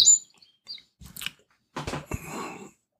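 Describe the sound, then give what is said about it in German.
Brief, high-pitched bird chirps sound faintly from outside a window, mixed with a few crunching or rustling noises. Nobody speaks. “Da sind ja die Vögel bei dir vom Fenster.”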